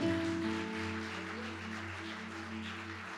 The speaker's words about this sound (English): Let's give them a, a round of applause. Amen.